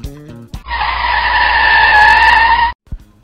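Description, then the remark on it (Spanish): A car's tires screech loudly for about two seconds as it accelerates hard. The squeal holds at a steady, piercing pitch and cuts off abruptly, followed by a brief rumble. “Allá le están metiendo la quinta a fondo.”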